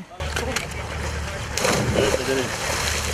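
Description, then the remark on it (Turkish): An Istanbul island ferry's engine drones in a steady low rumble over a broad wash of water and wind noise, with indistinct voices murmuring faintly in the background. “Ada vapurları yeniden çalıştı.”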